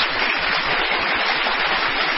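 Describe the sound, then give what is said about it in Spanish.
Steady applause at the close of the show Radio Pakusic, a dense wash of many hands clapping at an even, fairly loud level throughout, with no voices over it. “Sí, aplausos.”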